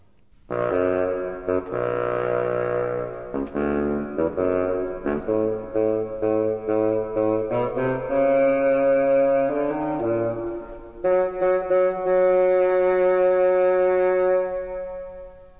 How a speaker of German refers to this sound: Das tiefe Fagott macht die Bassstimme des Großvaters nach.